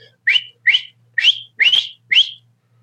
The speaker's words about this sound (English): And so if you can just do a little short whistle, not taking and rearing back and putting your hands in your mouth or anything like that, but if you can just whistle,